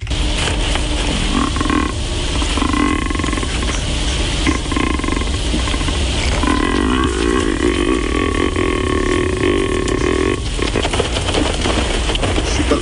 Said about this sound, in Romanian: Deci asta este un căprior filmat care face aceste sunete.